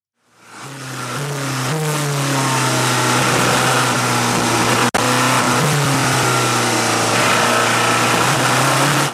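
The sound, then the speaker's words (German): A diesel race car engine at the 24 Hours of Le Mans race drones loudly and steadily, its deep harmonic tone shifting slightly in pitch as it holds a sustained, powerful roar with no pauses. “Der Kenner hört sofort, da ist ein Dieselaggregat am Werk und das stimmt auch in der Tat.”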